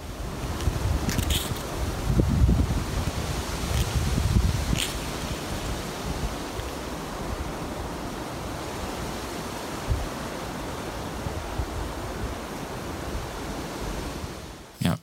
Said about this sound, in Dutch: Eh, we horen namelijk heel veel wind. Eh, dat is onvermijdelijk bij zo'n opname. Gaat nu eventjes, ja, het gaat eigenlijk ook wel over de wind. Maar probeer ook op het krassen te letten, denk ik, hè, die we, dat we horen.